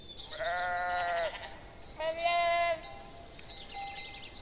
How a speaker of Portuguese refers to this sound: ouvimos os balidos de um rebanho de ovelhas. Elas pastam por um belo campo com pitangueiras e pés verdes.